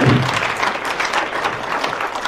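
A brief burst of audience applause, many hands clapping in a dense, steady patter at an even loudness for a couple of seconds, with no voices standing out.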